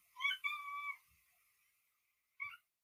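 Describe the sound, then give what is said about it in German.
A cat meows clearly, a drawn-out plaintive call lasting nearly a second, then after a pause a shorter second meow. No one speaks. “Hört ihr meine Katze mhm. gerade?”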